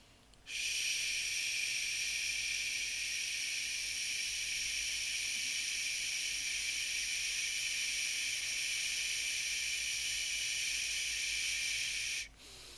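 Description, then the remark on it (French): A person demonstrating a breathing exercise while sitting upright and aligned gives a long, steady 'shhh' hiss of breath through the lips. It is held evenly for about twelve seconds and cuts off abruptly as the flow drops. Fairly loud, with no talking. “Et en lançant le ch, on va lancer une petite contraction du périnée.”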